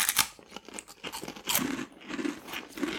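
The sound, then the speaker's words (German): Crunchy chewing of a crisp, spicy seaweed and crab snack: bursts of dry crackling bites, then steadier rhythmic munching at moderate loudness, with no talking. “Ja, probieren wir es mal. Ist das äh, Seetang? Ja, Seetang.”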